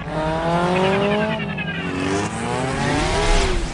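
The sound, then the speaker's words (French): Loud motorcycle engines rev continuously in a film trailer, their whining pitch climbing and dipping as they accelerate, with no voices over the roar. “Et maintenant, on va passer dans un univers complètement différent, un univers où les motos dominent le monde.”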